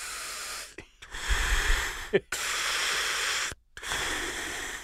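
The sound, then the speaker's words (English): A voice imitates heavy, labored mask breathing: three long, raspy, hissing breaths drawn in and pushed out, separated by brief silent pauses, loud. “It was labored breathing. Mine was just straight Darth Vader.”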